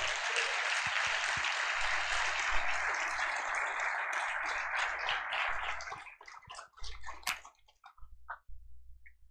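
A crowd applauds for Jesus with a dense, steady wash of clapping for several seconds, then it thins into scattered individual claps that trail off toward the end.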